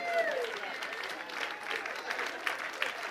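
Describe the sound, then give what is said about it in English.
A church audience claps steadily for the children as they leave, many hands blending into a dense, sustained wash of applause that carries on throughout at moderate volume, with a faint voice or whistle briefly heard at the start. “Give them a hand clap as they go.”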